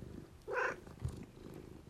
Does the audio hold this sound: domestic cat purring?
yes